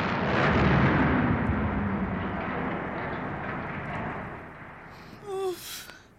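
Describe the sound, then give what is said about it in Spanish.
A massive roaring rumble from the eruption of the Tambora volcano in Indonesia in 1815 swells early and then slowly fades as it churns on. A brief high whistling tone cuts in near the end. “Pues así fue la erupción del volcán Tambora en Indonesia en el año de 1815.”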